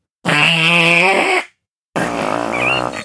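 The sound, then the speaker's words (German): Two loud, drawn-out fart noises blown into cupped hands pressed against the lips, buzzy and wavering, each lasting over a second with a brief silent gap between them and no talking. “Sogleich ertönt ein Laut, der klingt, als würde eine Herde Rinder pupsen.”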